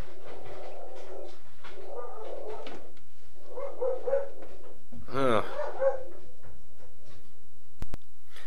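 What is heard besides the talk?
dog barking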